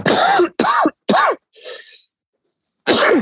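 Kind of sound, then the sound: human body sound, coughing and throat clearing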